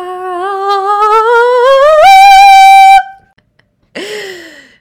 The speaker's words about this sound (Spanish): No podía faltar un gritish en este episodio del podcast. Ya saben que ese es mi little signature move. Así que de nada por explotarte el tímpano, te quiero mucho.